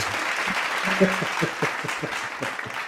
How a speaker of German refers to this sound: Geklatscht wird aber noch.